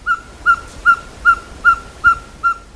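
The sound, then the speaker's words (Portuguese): A ferruginous pygmy owl (caburé), a small owl, calls in a steady, trilled series of seven short, clear whistled notes, evenly spaced about every 0.4 seconds, fairly loud, with no other sounds or voices. “Um som trinado, sequencial, mas na verdade é o canto de uma coruja que não é tão grande, mas que sempre causa um grande alvoroço a caburé.”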